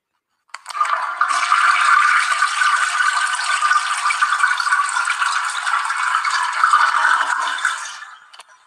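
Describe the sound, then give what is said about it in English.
A toilet flushes: a loud, steady rush of gurgling water that holds for about seven seconds, then quickly drains away. No voices are heard. “That's why this shit has to be flushed right now.”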